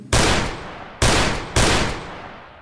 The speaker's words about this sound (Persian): نه یه شلیکا نه تیر هوایی قشنگ نشونه گرفت زد چهار نفر زخمی شدن و البته که شانس آوردن که مارادونا بالا بود و نشونه گیریش خوب نبود